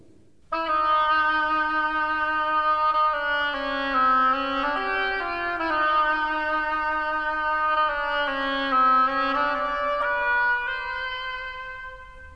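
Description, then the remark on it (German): A nasal, reedy oboe in an orchestral piece plays a slow, lumbering melody that mimics a duck's quack, portraying a fat duck, sustained, over a soft low accompaniment, with no voices. “Die dicke Ente spielt die quakende Oboe.”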